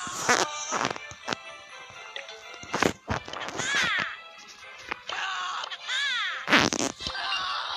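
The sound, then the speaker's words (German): Short, loud bursts of cartoonish angry roaring and growling from the angry Shelly pin, a video game emote, repeating several times with brief pauses, with no talking. “Das war gerade der wütende Shelly, der rumgebrüllt hat.”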